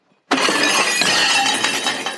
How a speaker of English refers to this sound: In about five seconds, a waiter's going to drop a tray of dishes.